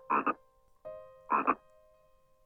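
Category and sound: animal, frog croaking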